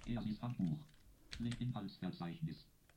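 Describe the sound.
A few sharp, fairly crisp taps of the arrow keys on a computer keyboard, moving up to the top of a document, interleaved with a steady, somewhat synthetic-sounding voice talking throughout.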